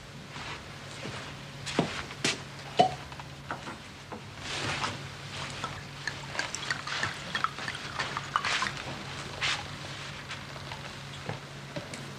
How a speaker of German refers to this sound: Auf den Schock der Enthüllung gießt Volkspolizist Klaus einen Schnaps ein zögert und reicht Trimmel das Glas.